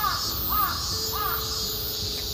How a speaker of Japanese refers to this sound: だよねとカラスが言っておりますがカラスさんたちって個体認識できるんですよ人間のこと顔だか匂いだか寸法だかなんだか分かりませんが